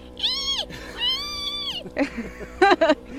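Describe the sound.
A person's voice imitates a small dog's siren-like bark as she guards the home: two long, wavering, rising-and-falling wails, then a quick pair of sharp, high yelps, with no other sound.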